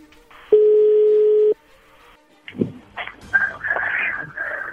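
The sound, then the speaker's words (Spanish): A single steady ringback tone sounds over a phone line for about a second, followed by a pause and then muffled, busy background noise on the line. “Y entró la llamada”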